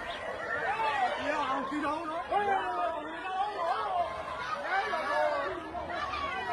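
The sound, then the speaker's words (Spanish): A crowd of agitated neighbors shouts at police officers as they beat a victim lying on the ground, calling him a murderer, talking over one another continuously, several people raising their voices at once in a dense, overlapping clamor that stays steady throughout. “los policías golpeaban a la víctima cuando ella estaba abatido en el suelo mientras los vecinos gritaban contra los policías y lo llamaban asesino.”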